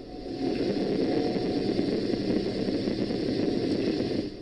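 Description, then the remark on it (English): A steady low rumble drones on without a break, like an engine or generator running somewhere far off, with a faint constant hum on top and no voices, heard at a home in the Castlereagh neighborhood of North St. Louis County. “The low rumble sounds like a generator running in the distance.”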